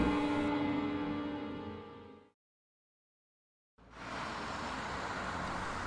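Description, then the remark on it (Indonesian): A steady engine hum with a droning tone fades out into a short silence, then a broad wash of road noise rises and holds as vehicles move past on a busy interprovincial road crowded with heavy trucks and buses in the late afternoon. No one speaks. “Lalu lalang kendaraan semakin ramai saat hari menjelang sore.”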